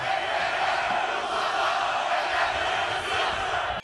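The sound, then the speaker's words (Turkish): A large crowd with flags chants and cheers at Sabiha Gökçen Airport in Istanbul, welcoming Ekrem İmamoğlu, a dense, loud roar of many voices that holds steady throughout before cutting off abruptly at the end. “Erzurum'da uğradığı saldırı sonrası İstanbul'a dönüşte havalimanında böyle karşılandı İmamoğlu. Bayraklarla, tezahüratlarla.”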